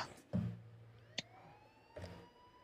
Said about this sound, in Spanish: Bueno, esa canción comienza con una pista instrumental de policía y sirenas. De policías, tiro.